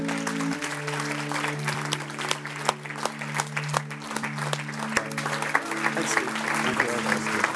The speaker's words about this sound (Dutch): Let's all stand up. Kom, laten we gaan Welcome this girl. Laten we haar een applaus geven.